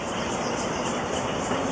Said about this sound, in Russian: Это же не птица. А кто это? Цикада! А, это цикады так поют.